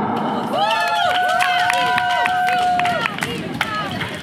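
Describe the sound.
A crowd claps steadily to welcome a speaker about to give a speech, a dense wash of applause mixed with cheering voices and a sustained, high whoop that rises and holds for a couple of seconds before fading.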